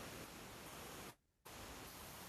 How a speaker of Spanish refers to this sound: Eh, se escucha una interferencia por ahí media extraña.